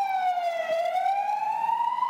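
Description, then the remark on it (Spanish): An ambulance siren wails steadily, its tone dipping then slowly rising as it passes in the street, loud and continuous with no talking over it. “La ambulancia esta nos...”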